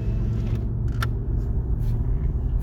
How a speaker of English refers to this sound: Damn, this traffic is loud. Holy shit, man.